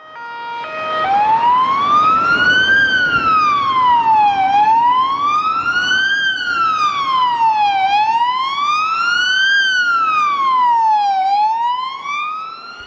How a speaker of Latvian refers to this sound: Kaut gan arī šodienas šīs sirēnas, kad iedarbina, tad ir tāds eh, skaņas uzdevums, ir, kas saka, brīdināt, ka mēs braucam. Palaidiet mūs.